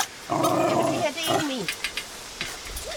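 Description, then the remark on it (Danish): Two large pitbulls in Dragør, Denmark: a dog growls low and steadily for about a second, then lets out a few shorter throaty rumbles and whines, with some background noise. “Og det er altså to kæmpe store pitbulls, du har stående her.”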